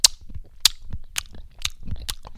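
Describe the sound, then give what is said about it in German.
A voice imitates a man's loud, wet lip-smacking chewing while eating: about five sharp smacks in a steady rhythm with soft mouth sounds between, with no talking. “Der schmatzt unheimlich beim Essen.”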